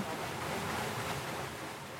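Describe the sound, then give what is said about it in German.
A steady, full rush of stream water pours without a break into the chambers of a turning mill water wheel at a grain mill in Rechtmehring, Germany, filling them and pushing the wheel forward over a four-metre drop. Loud, with a constant churning hiss and no voices. “Die werden dann gefüllt mit dem Wasser und das Wasser drückt das Rad nach vorne und diese Kammern werden dann unten wieder ausgeleert dann am Bach.”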